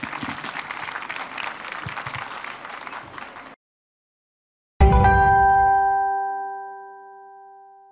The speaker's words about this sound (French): Vous pouvez évidemment les applaudir. Merci. Merci beaucoup.